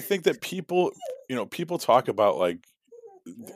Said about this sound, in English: that's my dog I, this is the dog i don't like go away go away uh, but she always comes up here when i podcast too i don't know why she wants to talk to me.